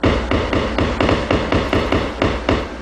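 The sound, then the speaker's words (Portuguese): Electric discharges of a poraquê, the electric fish of the Amazon: a steady, fairly loud train of crackling, buzzy pulses, about four bursts per second, each packed with fine rapid clicks, with no voices. “Esse som é feito pelas descargas elétricas do poraquê, o peixe elétrico da Amazônia.”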